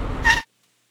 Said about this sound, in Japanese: はいこのような感じで車が停止しましたいやー、すごいですね。路面がこんなにツルツルなのに、乾いた道路と同じように車は全く滑りません。